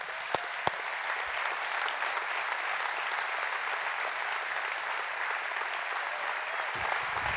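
A large crowd at Seacoast church's Mount Pleasant campus claps steadily and enthusiastically to welcome a guest as he comes in, a dense, continuous wash of applause that holds at an even level throughout, with a few sharper claps standing out near the start.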